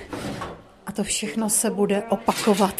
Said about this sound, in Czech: Zavřeme dveře. Zamkneme